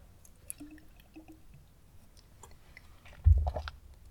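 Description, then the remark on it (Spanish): Someone takes a sip of water during a pause: a few soft, wet mouth clicks, then a louder gulping swallow near the end. No one speaks. “Eh, pausa para trago de agua y arreglar mis ideas ya para empezar a cerrar el programa.”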